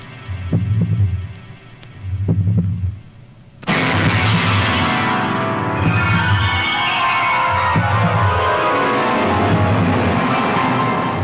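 A slow, booming heartbeat from a film's sound design thuds in repeating double pulses, reverberant and loud; after a few seconds a dense droning wash swells in underneath while the echoing beats keep pounding steadily.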